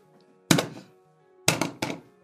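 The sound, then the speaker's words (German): A game show buzzer being slammed during a quiz guessing TV presenters: three hard, dull thuds, one alone and then two in quick succession, each with a short rattling decay, and no voices. “Ich hab den schon kaputt gemacht. Wir brauchen einen neuen Buzzer.”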